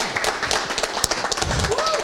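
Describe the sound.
A crowd applauds steadily, many hands clapping in a dense, continuous patter for about two seconds, with scattered voices and a brief whoop rising through the noise near the end.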